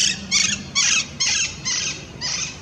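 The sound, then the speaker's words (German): Green parakeets give a rapid series of about five harsh, shrill screeches in quick succession, fairly loud, over a faint low rumble of outdoor background noise in a city park. “grüne Papageien, die haben sich in den letzten 20 Jahren ausgebreitet”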